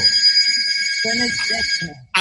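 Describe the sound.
A telephone rings with a bright, steady electronic trill that runs for about two seconds, while a person starts talking over the latter half before it cuts off.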